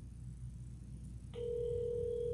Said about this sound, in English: Yo, this is it's just ringing. There's no answering machine. No answering machine. Let's try it again.